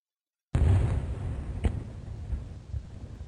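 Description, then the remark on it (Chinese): Fireworks set off in an open field go off after a moment of silence: a sudden loud burst with a deep rumbling roar, one sharp crack partway through, and a few smaller pops as the crackling hiss fades. “狐狸美滋滋的找了个空旷的场地，点燃了自己的烟花。”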